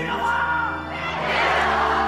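A crowd cheers and shouts in acclaim as Henri IV makes his triumphant entry into Paris, a dense, steady roar of many voices with yells and whoops rising out of it, loud and unbroken for about two seconds.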